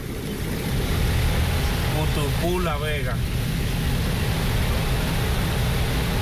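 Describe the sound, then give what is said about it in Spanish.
A dense, steady roar of heavy rain falling on the Carretera Moca road fills the whole recording at a constant loudness, with a man's voice briefly speaking over it partway through. “Lloviendo en esa zona, bastante,”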